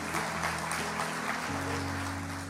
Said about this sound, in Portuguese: Eu não queria que você aplaudisse, tipo, ó, oh, deu certo a sacada.